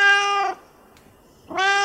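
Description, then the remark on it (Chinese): A white Chinese rural cat named Xiaomian, born around 2015, with one blue eye and one yellow eye, meows twice. Each call is a clear, drawn-out, harmonic-rich cry, with about a second of near silence between them and no talking. “小冕是一只一五年左右出生的中华田园猫，它是白色的，然后它的眼睛是一瞳，一只蓝色，一只黄色。”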